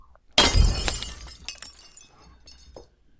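A mirror standing outside a door shatters with a sudden loud crash, followed by a scattering of tinkling shards that ring and clatter for a couple of seconds before fading out.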